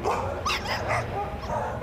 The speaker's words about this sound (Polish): Pierwsi na osiedlowej arenie pojawiają się psiarze, którzy zaspani raczej nie wchodzą w dyskusję z innymi właścicielami, za to ich pupile bardzo chętnie. Więc między szóstą i siódmą szczekanie na śniadanie.